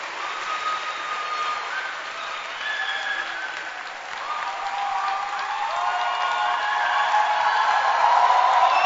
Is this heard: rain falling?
no